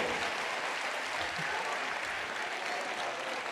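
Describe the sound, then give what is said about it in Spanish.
Steady, dense applause from an audience, a continuous wash of many hands clapping at an even level for several seconds with no voices standing out. “Mira, su su fuerte aplauso.”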